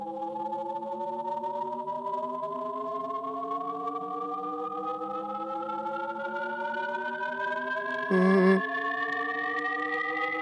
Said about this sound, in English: different parts moving up, and as they um, go up, they fade in and out, and they overlap each other. So it sounds like it's constantly oh, rising, even though it's not actually getting higher.